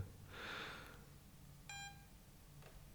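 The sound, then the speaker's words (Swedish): A single short electronic beep from a phone app, a bright tonal bleep lasting about a quarter second, heard fairly quietly against a soft hiss, preceded by a brief breathy rustle. “Du letar som fan efter en app och så kommer du bara fram till en app som pep. Som pep en gång.”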